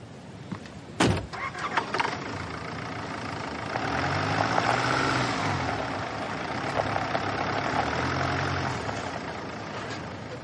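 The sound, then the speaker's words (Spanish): A man gets into a car: a sharp thud like the car door shutting, then the car engine rumbling steadily, rising into a louder idle hum that carries on to the end. No one speaks. “Leifur sube al coche.”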